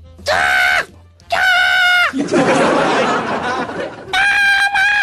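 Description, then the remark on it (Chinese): A voice imitates a child's weird screeching: loud, shrill squeals that slide in pitch, a long raspy hissing stretch in the middle, then one more high, strained squeal. “那孩子在外边啊，滋滋的怪叫啊，那动静啊，不知道他怎么学出来的啊”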